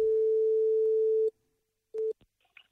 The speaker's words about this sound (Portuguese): já estou aqui a ligar para o Doidas Formalas. Se o teu telefone está a tocar neste momento, sou eu.